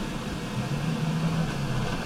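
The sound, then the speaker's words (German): An emergency vehicle's engine hums steadily as the crew drives back to the station, a low continuous drone with faint road noise and no voices, holding even for the whole moment. “Das heißt, wir haben jetzt den Wagen zurechtgemacht und fahren zurück auf die Wache.”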